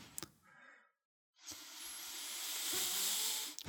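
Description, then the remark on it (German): A voice imitates a group's short, sharp intake of breath just before New Year: a brief click, then a long, steady airy hiss that builds slightly for about two seconds before cutting off abruptly. No speech. “Ich glaube, es gibt noch mal so einen kurzen Gruppenatmer vorher.”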